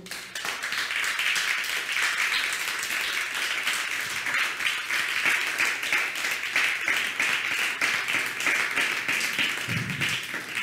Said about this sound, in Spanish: buenas noches a todos. Les, recibimos con un fuerte aplauso.